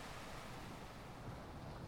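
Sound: waves on a seashore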